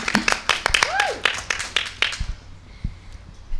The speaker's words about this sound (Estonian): Vau, ma tahaks plaksutada ja nad teevadki seda